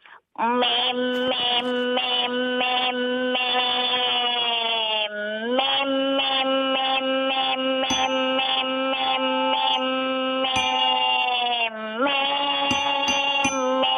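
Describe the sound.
A person in their late twenties who runs a small cafe in Incheon imitates a cicada, holding a loud, steady, buzzing drone with rapid pulsing, a couple of brief pitch dips, and no break for about fourteen seconds.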